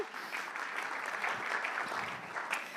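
An audience claps steadily for someone who has just recited the Bible verse John 3:16, a dense crackle of many hands at a fairly even, moderate level throughout, with no voices heard over it.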